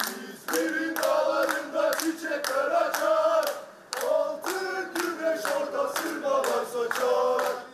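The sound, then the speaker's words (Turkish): A large crowd of football supporters chants slogans in unison with rhythmic clapping, loud and continuous, the voices rising and falling in repeated phrases, as the fans see off their team bus in Saudi Arabia at the Super Cup. “Suudi yetkililer taraftarların takım otobüsünü uğurlarken attığı sloganlara dahi engel olmaya çalıştı. Taraftar dinlemedi, susmadı.”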